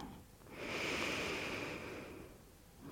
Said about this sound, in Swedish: Andas några långa djupa andetag. In och ut genom näsan.